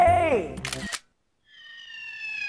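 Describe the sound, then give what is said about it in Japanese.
A voice speaks, then a dart from the thrower's own personal set strikes the board with one sharp, crisp clack. A brief silence follows before steady, high, ringing tones fade in. “僕も持ってるんですマイダーツ、うん、なんでねこれちょっと次のコーナーに向けておちょっとダーツで開けてみるわ”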